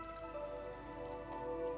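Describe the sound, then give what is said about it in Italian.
Soft, steady sea waves wash beneath calm, sustained music tones, a gentle continuous water texture blending with the mellow background melody, with no talking. “ci sono le onde del mare, una musica calma e rilassante.”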